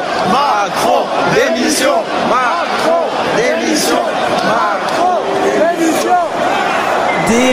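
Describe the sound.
A large arena crowd of fans at a public album listening event chants the slogan "Macron démission" in unison, many voices shouting together in a steady, repeating rhythm that fills the space loudly and continuously.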